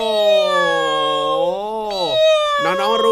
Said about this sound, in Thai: อย่าบอกนะว่าเป็นเสียงน้องหมา ไม่ใช่สิชัดเจนขนาดนี้เนี่ยต้องเป็นเสียงน้องแมว